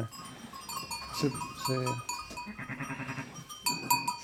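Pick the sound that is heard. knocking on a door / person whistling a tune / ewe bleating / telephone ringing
ewe bleating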